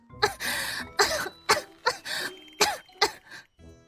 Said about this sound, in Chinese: 谢桥说着，又开始猛地咳嗽，咳得半真半假的。病了这么些年，他可是深深了解病人是怎么虚弱的，所以他看上去真是极为的可怜。